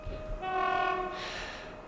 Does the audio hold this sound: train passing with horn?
yes